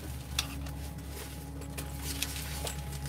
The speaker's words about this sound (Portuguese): Quem consegue com uma caneta, deixa eu ver se a minha caneta tá aqui, tá aqui na minha mochila.